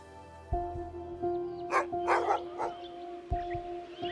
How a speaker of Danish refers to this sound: Hundenes glammen lyder højt og insisterende. Så jægerne må stoppe andejagten, der ellers lige er gået i gang ved Rødenbjerg Sø i Thy. Hvad gør de hunde dog af?